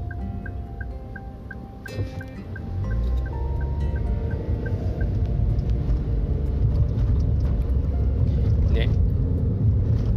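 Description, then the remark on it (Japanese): A car passes outside, its low engine rumble swelling after a couple of seconds and staying heavy as it rolls by, with a faint repeating beep in the background. “あ車来ちゃった。”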